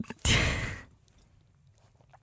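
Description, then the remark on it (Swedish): A single slurping sip of a drink, a short breathy rush of noise lasting about half a second, followed by near silence with faint mouth sounds. “jag måste bara ta en klunk kanske till henne.”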